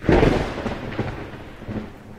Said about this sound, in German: Ich liebe den Donner bei Gewitter